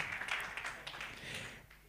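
A group applauds steadily for about two seconds, a dense crackle of many hands clapping at once with sharp individual claps poking through, fading slightly at the end.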